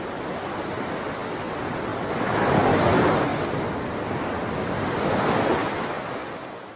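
Ocean waves wash in on a steady bed of surf noise, swelling twice into broad, rushing crests about two and a half seconds apart before receding, with no voices present.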